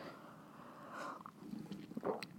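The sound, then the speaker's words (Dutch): A quiet sip of tea: soft wet mouth sounds build to a brief slurp near the end, followed by a small swallow click, with no talking. “Dat was een slokje thee.”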